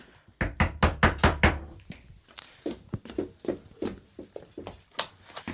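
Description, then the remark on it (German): Police knock on the front door of a home late at night: a rapid burst of firm knocks, followed by more scattered, irregular thumps and bangs, fairly loud with no voices. “Wer ist da? Machen Sie die Tür auf, wir wollen mit Ihnen reden.”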